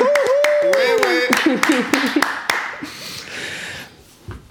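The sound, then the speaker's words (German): Several people clap their hands in a quick, uneven burst of sharp claps lasting a few seconds, with excited voices and laughter mixed in before the clapping fades out. “Wir haben geklatscht, obwohl Marie nicht da war.”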